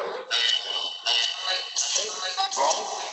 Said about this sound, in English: Reverb is this.